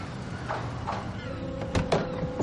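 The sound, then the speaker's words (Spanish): A car door opens and shuts as someone gets out of a car that has stopped at a port, giving two quick solid clunks close together near the end, over a steady low background rumble with no one speaking. “Se detienen y Vinuesa sale de uno de ellos.”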